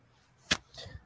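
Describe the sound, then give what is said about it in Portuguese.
A single sharp, heavy thud as a heavy code book drops onto a table, sudden, followed by a softer shuffle or settling knock a moment later. “meu código caiu aqui na, na mesa, desculpa pelo barulho. É, é pesado”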